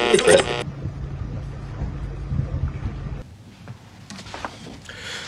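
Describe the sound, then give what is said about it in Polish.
Sea waves washing against the shore, a steady broad rushing roar with a loud gusty burst at the start that eases off partway through, leaving softer surf and scattered crackles. “Czy słyszysz umfal fal i”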